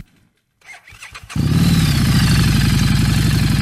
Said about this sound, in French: Là. il est-tu obligé de craquer sa, moto de même là, quand il est arrêté? mais ça fait partie de... Ton empreinte, hein? Ça fait partie de ton empreinte. Amener sur un Harley, mais il n'est pas, euh, il est pas straight.